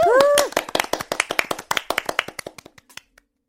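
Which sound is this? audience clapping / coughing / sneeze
audience clapping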